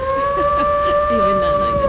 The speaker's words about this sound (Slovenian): Volkovi tulijo.